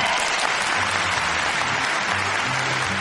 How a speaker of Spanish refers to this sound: Entonces, aplauso ensordecedor, por favor.